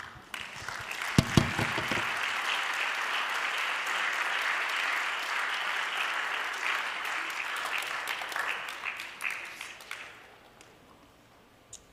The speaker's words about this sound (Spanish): De un aplauso a Jesús.